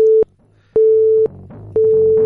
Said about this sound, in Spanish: No, yo creo que estaba comunicando ya.